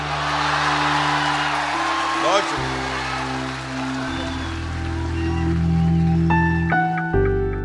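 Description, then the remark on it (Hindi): A large audience applauds and cheers continuously for Rahat Indori's poetry recital, a dense wash of clapping with scattered whoops, while sustained low tones hum steadily beneath the crowd noise throughout. “राहत इंदौरी को अपने एक एक शेर पर ऐसे ही दाद मिलती थी लोग देर तक खड़े होकर तालियां बजाते थे”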